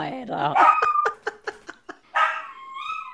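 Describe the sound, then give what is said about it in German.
A dog howls and whines along with a siren in drawn-out, wavering tones, broken midway by several short, sharp yips before another long rising howl trails off. “Ja, der, der jault immer mit mit der Sirene.”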